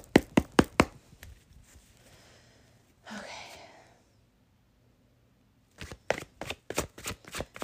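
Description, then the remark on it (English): A deck of cards being shuffled: quick bursts of sharp flicking taps at the start and end, with a brief rushing riffle in the middle, then a moment of quiet. “So I'm going to go ahead and I'm going to shuffle these cards for you guys because let's figure out what's going on.”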